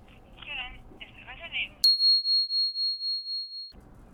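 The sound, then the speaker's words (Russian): After a few seconds of indistinct talk, a telephone rings loudly: a bright, high electronic trill pulsing rapidly for about two seconds, then stopping abruptly. “Это меня время от времени используют в качестве телефонистки. Просят э, перевести меня в регистратуру, потому что сама регистратура не отвечает”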